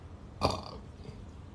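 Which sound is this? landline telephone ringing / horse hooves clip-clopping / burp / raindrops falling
burp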